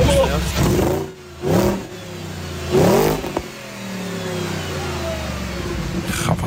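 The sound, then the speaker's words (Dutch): An Audi naturally aspirated car engine revs up, three quick throttle blips rising and falling in pitch, then settles into a steady, rumbling idle. “Oh, is nog een Audi-motor.”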